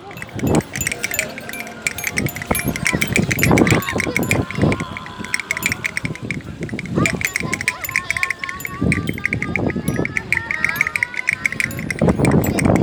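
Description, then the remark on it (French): Irregular wooden clacks of castanets set in action by the force of the wind rattle in uneven bursts, with a steady breezy rustle running underneath. “Donc en fonction de la force du vent, vous avez donc des castagnettes qui, se mettent en action.”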